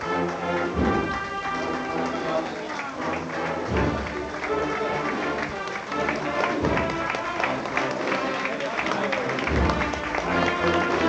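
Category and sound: crowd, crowd applauding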